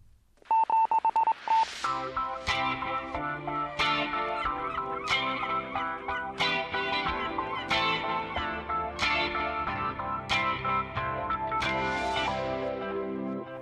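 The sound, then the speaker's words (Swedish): A short electronic jingle for a quiz's lightning round, starting with a brief beep and then bright synth chords punctuated by regular whooshing hits, loud and busy throughout, with no one talking. “Eh, jag drar förutsättningarna efter en eh, liten jingel som låter så här.”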